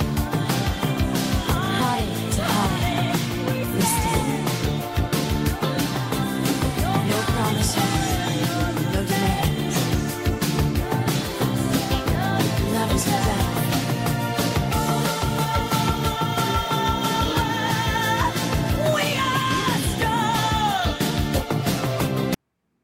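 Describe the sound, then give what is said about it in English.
A loud 1980s pop rock song plays throughout, with driving drums, bass and guitars under a female singer whose vocal rises into an impassioned, screaming line, "We are strong," near the end. “So I wanted to play that clip just because at the end where she screams, "We are strong."”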